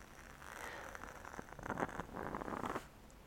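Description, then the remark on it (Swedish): Quiet crackling with irregular tiny pops and snaps, like a wooden-wick candle imitating a fireplace, continuing steadily without any talking. “Det ska låta som en brasa men nu tycker jag det låter jättejobbigt.”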